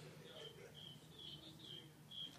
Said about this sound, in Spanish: pero ¿quién hizo el efecto de grillo otra vez?